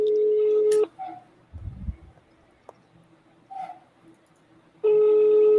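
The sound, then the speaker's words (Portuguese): A phone call is being placed: a steady electronic call tone sounds, cuts off, and after a pause of faint background noise and a low thump, the same loud sustained ringback-style tone returns. “Ei, vamos ligar, ligando, ligando, ligando, ligando,”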